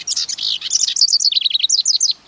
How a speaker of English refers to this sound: We're hearing a house wren,